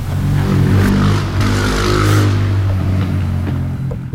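A car engine hums steadily from inside the vehicle, with low rumbling tones and occasional shifts in revs as it drives slowly along while the driver looks for a place to park. No one speaks.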